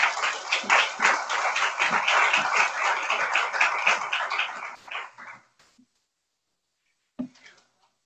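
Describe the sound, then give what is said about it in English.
An audience at a medical grand rounds breaks into steady, dense applause as the speaker is invited up, holding strong for about five seconds before thinning out and fading to quiet, followed by a brief stray sound. “Round of applause.”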